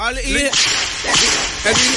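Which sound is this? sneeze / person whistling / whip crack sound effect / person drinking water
whip crack sound effect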